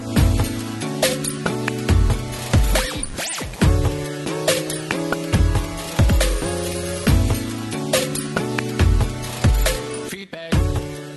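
A short, loud instrumental jingle, cut from another recording and set off by pressing a large red button, plays on its own with steady sustained chords, punchy percussive hits and brief stabs, fading at the end without any voices.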